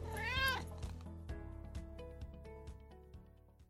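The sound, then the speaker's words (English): A cat lets out one clear, rising-and-falling meow right at the start, then goes quiet while a steady, rhythmic musical backing carries on underneath. “Stop looking at me, weird cat.”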